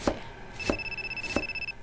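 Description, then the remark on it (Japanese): A telephone rings with a steady, high electronic tone lasting about a second, while three sharp knife-on-board chopping knocks sound at an even pace as dinner is being made. No one speaks. “お母さん電話”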